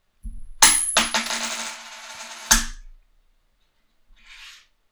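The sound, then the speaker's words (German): A coin with a bird side and a number side is flipped and lands with a bright metallic clink, then rings and rattles as it spins down to rest on the number side, followed by a soft brushing sound. “nimmst du den Vogel oder die Zahl?”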